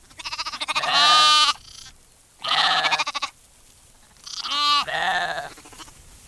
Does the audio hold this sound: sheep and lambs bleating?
yes